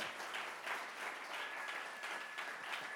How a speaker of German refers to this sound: Oh, kann irgendwer mal Jesus einen Applaus geben?